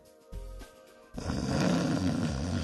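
A person snoring loudly: a brief low snort, a short pause, then a long, harsh, rattling snore that carries on steadily to the end, with no talking.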